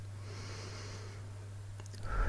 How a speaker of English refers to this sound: And then we breathe in a really specific way. So we're breathing in through our nose